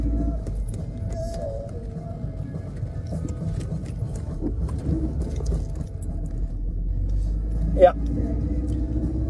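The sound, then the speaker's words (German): Steady low road and engine rumble fills the cabin of a moving car, with a person talking over it and a brief sharp click near the end. “Und wo ich jetzt gerade hier schon im Auto bin, dann kann ich das auch noch machen.”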